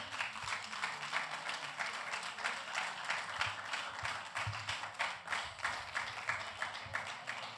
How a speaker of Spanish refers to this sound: Si ese aplauso es para mí, déselo con fuerza. Está bueno, pero si es para Dios, tiene artritis, déselo con fuerza, por favor.